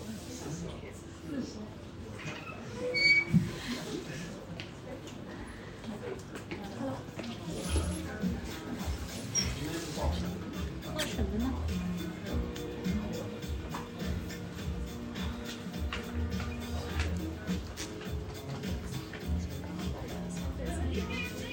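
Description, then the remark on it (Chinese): Coffee being made by a barista at a cafe counter in a hutong, recorded beside the barista: small clicks, taps and clinks over a steady machine hum, with two customers placing their orders throughout and a brief louder knock early on. “在正式开始聊天之前，我还把收音设备放在了正在制作咖啡的咖啡师旁边，然后后期听录音的时候才发现，还很凑巧的录进去了两位正好正在点单的人的声音。”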